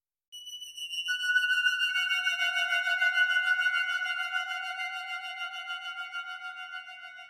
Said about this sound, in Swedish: Den pratade vi inte om lika mycket, men vi har också Yamaha CS80 som har då upp till åtta voices samtidigt, alltså åtta toner samtidigt.